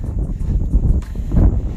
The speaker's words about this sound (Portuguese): O vento que sopra agora no meu rosto. Talvez seja loucura de onde vem esse vento.